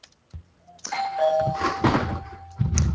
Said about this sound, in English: Ding dong!